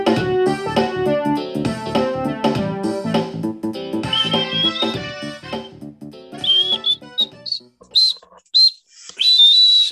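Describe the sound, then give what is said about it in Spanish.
A catchy song melody plays with full, rich tones, then gives way to a bright whistled tune of short, sliding notes near the end. It is loud, with no talking. “Es imposible no tararear esa cancioncita, ¿no? No chiflarla. Muy pegajosa.”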